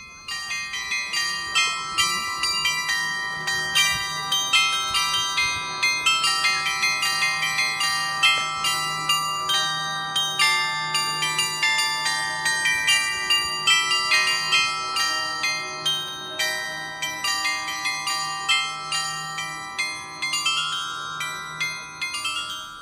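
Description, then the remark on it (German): A glockenspiel on the facade of the Brose house at the market square in the old town, installed in 1984 and played four times a day, plays a steady melody. Bright struck tones ring out one after another in a regular rhythm, each note leaving a shimmering decay, with no voices present. “Jahrhundert, wie das Haus der Unternehmensfamilie Brose, an dessen Fassade viermal täglich ein Glockenspiel erklingt.”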